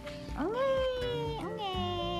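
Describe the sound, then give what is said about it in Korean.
A baby's wailing cry rings out, loud and drawn out, with two rising-and-falling wails in quick succession and no other sounds around it. “왕국에서 아기 울음소리가 들렸어요.”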